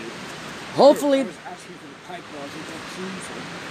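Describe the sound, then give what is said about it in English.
Steady outdoor wind roars as a broad, constant rush throughout, with a brief spoken word near the start cutting through the blustery noise. “Oh, and it's windy out. windy.”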